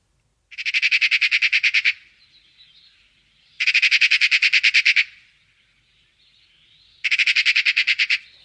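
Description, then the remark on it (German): A Eurasian magpie chattering: three loud, harsh bursts of rapid rattling notes, each lasting over a second, separated by short pauses with faint softer calls between them. No voices. “Was man aber oft hört, ist das, äh, ja, das sogenannte Schackern, was wir euch jetzt mal vorspielen.”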